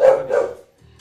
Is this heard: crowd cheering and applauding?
no